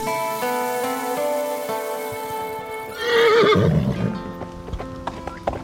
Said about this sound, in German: Gauchos und Pferde, die durch die Pampa galoppieren. Hört sich so an, oder? Klingt nach Abenteuer, ist aber nicht in Argentinien.